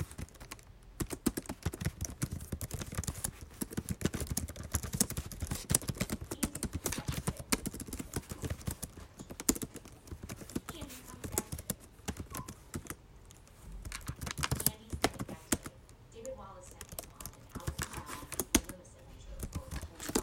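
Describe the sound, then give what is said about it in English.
Rapid, continuous typing on a computer keyboard in Word for a chapter submission, crisp, with dense clicking keystrokes running steadily for about twenty seconds and brief pauses between bursts. “So I'm going to get on Word so you can hear me type, which you'll love.”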